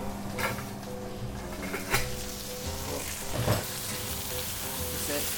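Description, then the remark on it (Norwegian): Steady crackling sizzle of fish frying in a pan as a final adjustment is made to it, with a few sharper clicks and scrapes as it's moved or stirred, and no talking. “Så tar jeg og gjør en siste justering på den fisken her også.”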